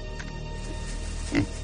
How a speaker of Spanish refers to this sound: Ante él aparece un cerdo de color negro.